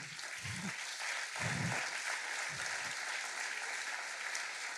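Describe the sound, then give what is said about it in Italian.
Steady, moderately loud applause from about twenty people, a dense patter of clapping that holds evenly for the whole few seconds with a few low thumps underneath and no voices. “L'hanno capito una ventina, gli altri non l'hanno capito perché non stanno applaudendo.”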